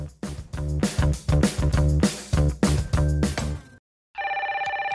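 A telephone rings loudly and insistently in a rapid, pulsing pattern, stops for a brief moment, then resumes as a bright electronic trilling ring. No one speaks.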